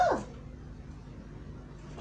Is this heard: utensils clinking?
no